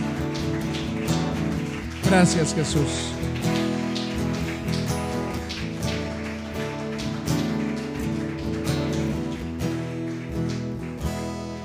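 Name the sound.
audience applauding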